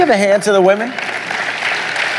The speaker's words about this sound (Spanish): Eh, ¿Usted me le puede dar un aplauso a las mujeres?